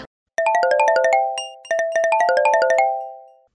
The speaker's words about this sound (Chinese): 话说呢，小张走在路上啊，手机就响了